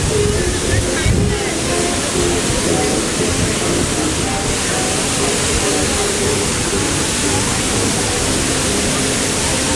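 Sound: waterfall rushing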